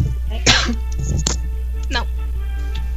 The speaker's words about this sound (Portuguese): Você tava aprendendo essa tosse? Não, eu tô tossindo o tempo inteiro.